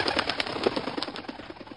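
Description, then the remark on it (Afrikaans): A rapid run of soft, rhythmic whooshing flaps of an eagle's strong wings beating as it flies up into the air, steady throughout, with no voices. “Sê Andries Arend, skud sy sterk vlerke reg en vlieg met 'n geklap van vlerke in die lug op”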